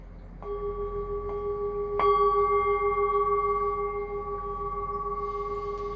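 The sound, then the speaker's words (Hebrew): A Tibetan ritual bell or bowl is struck twice as a healing, purifying sound, about a second and a half apart, each strike leaving a clear, shimmering tone that rings on steadily without fading. No voices. “ואני מוסיפה רגע לפני, צליל מרפא, מטהר, מזכך מהטהרה הטיבטית שלי.”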